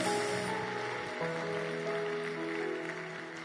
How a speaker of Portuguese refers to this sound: Aplauda o Senhor aí, querido. Glória a Deus.